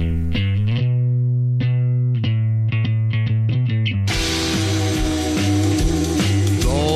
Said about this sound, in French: on va écouter la, euh, cette chanson-là